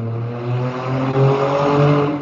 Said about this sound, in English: revved the car engine that loud. Wow! Ah, wow! Holy cow! That was obnoxious.